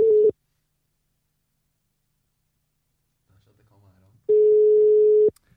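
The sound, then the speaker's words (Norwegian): Two long steady ringback tones of an outgoing phone call to a singer, dialled from a number found by searching his name online; a short tone at the start and a second about a second long after a pause, with a faint low murmur just before it. “Uh, måten vi gjør det på, er jo at vi googler navnet og ser hva slags telefonnummer som kommer opp.”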